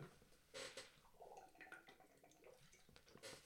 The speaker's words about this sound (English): yes, that is me having a sip of water.